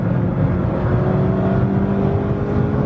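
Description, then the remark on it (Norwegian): A car engine runs loud with a steady, droning hum as the driver pulls it out through the gears, its pitch holding fairly even as it pulls under load, with no voices present. “Så må du trekke ut girene her, som jeg må si jeg syns er ganske artig.”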